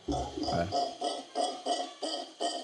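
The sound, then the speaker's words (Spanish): A mantled howler monkey (mono congo) howls in a steady series of about eight rough, pulsing bursts, fairly loud though far away, with a brief murmur of voice at the very start. “llama un mono congo, se llama”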